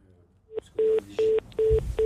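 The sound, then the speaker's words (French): A caller's telephone line cuts off into a string of short, evenly spaced beeps, four steady tones pulsing on and off over faint background rumble, with no voices. “Ah, attention, ah, on n'a plus, on a plus au téléphone, c'est pas grave, et on remonte le micro.”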